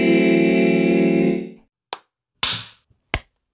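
A sustained, harmonically rich tone fades out, followed by three sharp hand claps spaced irregularly, each a crisp slap with a short ring. No one speaks.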